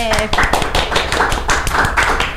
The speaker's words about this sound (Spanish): Cada vez aplauden menos. O sea, es lo único que voy a decir.